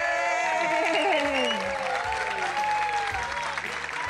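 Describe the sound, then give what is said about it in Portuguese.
Applause given, as in a theatre, to thank the audience at the end of an event: many hands clapping in a dense, continuous wash that stays loud throughout, with faint cheering voices mixed in. “Vamos fazer como no teatro, vamos agradecer a plateia.”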